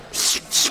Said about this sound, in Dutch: Hoe proef je olijfolie? Het geluid wat je hoort is eigenlijk het, het strippen van olijfolie.